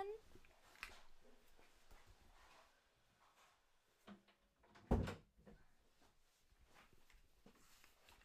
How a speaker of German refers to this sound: Entschuldigt, äh, entschuldigt mich mal kurz. Ich muss schnell Tür zu machen.